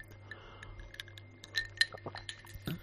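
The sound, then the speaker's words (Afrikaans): A whisky glass clinks a few times with bright, ringing taps, a couple of sharper chimes in the middle, amid small handling knocks over a low steady hum, as someone takes a sip of whisky. “Ek vat nou eers weer 'n sluk whisky.”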